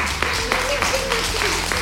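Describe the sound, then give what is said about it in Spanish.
A group of children claps together in a school, steady and fairly loud applause, with faint voices murmuring underneath. “Pues vamos a dar un fuerte aplauso a de las mascarillas.”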